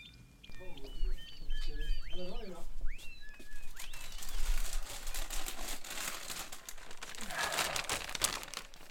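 A plastic bag holding electronic components crinkles and rustles continuously as it is handled in a person's hands at the Mon Repair Shop repair workshop, with some faint chirpy tones and murmuring in the background at the start.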